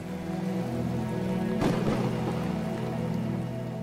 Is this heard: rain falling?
yes